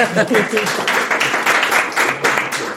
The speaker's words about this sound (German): Bei den Hobbybrauern wird laut geklatscht.